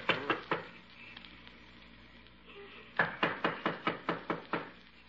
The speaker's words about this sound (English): Well, knock on the door anyhow.